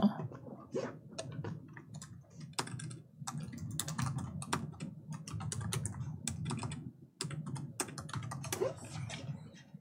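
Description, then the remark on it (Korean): Rapid typing on a computer keyboard while going to the Naver Real Estate website, keys clattering in an uneven stream of sharp clicks for about ten seconds, with a low background murmur underneath. “어, 네이버 부동산 한번 들어가 볼게요.”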